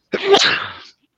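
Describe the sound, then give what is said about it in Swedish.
A single loud sneeze with a sharp explosive burst that trails off into a breathy hiss, heard alone with no talking. “Oj, prosit!”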